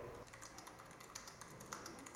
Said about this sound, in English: And on the third part of this piece, what, I, what I'll do is put my fingers on the home key. And then you're able to sort of decipher what I've been typing all along, which is the phrase, I mean what I say.